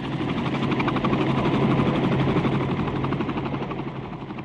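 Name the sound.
helicopter flying overhead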